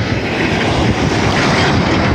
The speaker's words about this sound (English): For whatever reason, the street I'm on is just nonstop rattly trucks. And I hope you can hear that rattle. It's like a baby's rattle. It's like God's baby rattle